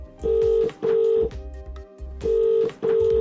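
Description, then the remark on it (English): Four steady electronic keypad tones beep in a quick, even sequence as a phone number is dialed, each tone short and clear with brief gaps between them, no voices present. “Well, here, let me play it for you. I called him up.”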